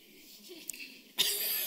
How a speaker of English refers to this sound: It's interesting when I clear my throat, I hear about 10 people in the congregation clearing their throat, throats. Excuse me.